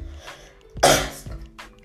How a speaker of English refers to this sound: excuse me, excuse me, y'all. I still kind of have that cough, y'all, but bear with me.